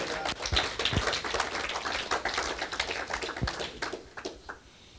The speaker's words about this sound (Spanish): Si tú tienes tu padre, tus padres con vivo, en, vida, tu madre, tu padre, dale un aplauso a Dios por esa vida de esa persona.